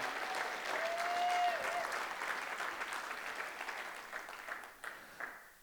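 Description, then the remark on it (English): A large audience bursts into sustained applause and cheering for their pastor, with a brief whistle early on; the dense clapping continues steadily before gradually thinning out toward the end. “And do me a favor if you love your pastor this morning, can you just make some noise for him?”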